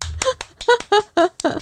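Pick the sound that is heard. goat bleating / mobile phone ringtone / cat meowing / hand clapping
hand clapping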